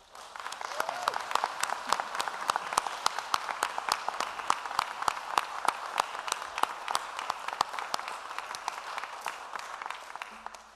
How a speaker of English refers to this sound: Let's give our ministry team a round of applause.